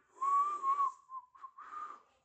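A person whistles a short, wavering tune to find tickets, the pitch sliding and warbling across a couple of seconds before trailing off, clear with no talking.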